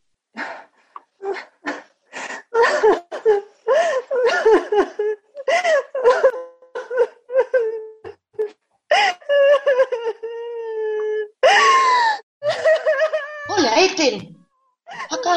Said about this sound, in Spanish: Ah, pero escucho a la vecina de al lado. Está llorando. ¿Por qué? Sí, seguro, porque acaba de separarse del marido.